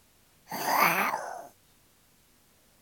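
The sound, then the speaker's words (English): A single fierce, drawn-out growl of a tiger monster, about a second long, rough and loud against a quiet background; it sounds like a human voice imitating the creature. “They were almost across when they heard fierce growls from behind.”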